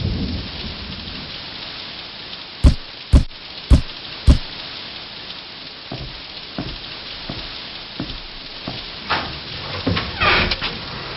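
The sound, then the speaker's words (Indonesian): A heavy rainstorm pours down in a steady, dense hiss. Four sharp, loud bangs land close together early on, followed by softer scattered thumps. No one speaks. “Hujan badai yang lumayan deras.”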